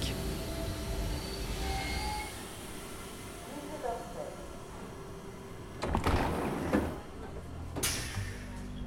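Steady low rumble and hum inside an RER commuter train on a Wednesday at 8:45, with faint tonal whines, then two sharp hissing bursts near the end as the sliding doors open and close.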